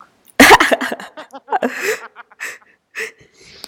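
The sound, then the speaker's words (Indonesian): A sharp, forceful cough bursts out after laughing, followed by a string of short, breathy laughing gasps and sputters that trail off into quieter wheezy breaths. “Oke, ya sampai batuk gue.”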